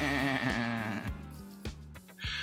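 A goat lets out one loud, quavering bleat up close, its shaky vibrato lasting about a second, followed by steady tones punctuated by a few sharp percussive hits.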